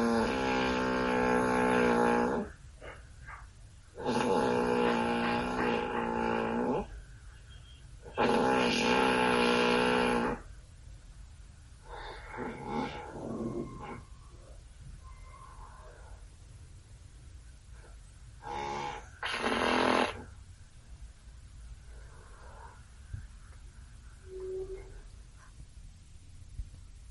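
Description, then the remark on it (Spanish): A recording of a woman's husband snoring loudly: three long rumbling snores a few seconds apart, then quieter irregular breathing noises and one more snore near the end. “Vamos con el de Paola Estrada, que mandó los ronquidos de su esposo”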